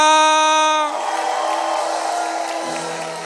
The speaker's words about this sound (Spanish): Vamos, si usted recibe esa palabra del Señor, dele un aplauso fuerte. Alguien que le dé un grito de alabanza